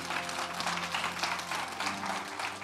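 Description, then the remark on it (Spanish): An audience applauds steadily for Christ, many hands clapping in a dense, continuous wash of sound that holds at an even, fairly loud level throughout, with no voices standing out. “Denle un aplauso fuerte a Cristo, porque Él es bueno.”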